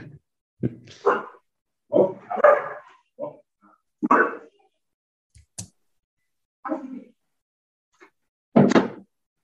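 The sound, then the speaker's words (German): An Australian Shepherd barks loudly, about eight sharp, full barks in an irregular series with short silent pauses between them, and no talking over it. “okay, es ist ein Australian Shepherd.”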